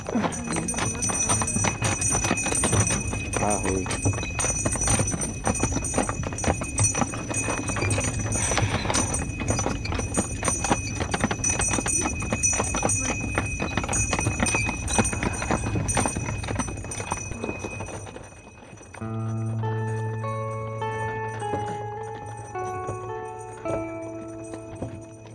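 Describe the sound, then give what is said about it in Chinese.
Hooves of a small donkey being ridden along a main road clip-clop steadily in a brisk, even rhythm over a busy background, then give way to soft melodic music with sustained tones near the end. “当你骑着小毛驴行走在明清时代主要的交通要道上，你可能会和其他旅行者擦肩而过。”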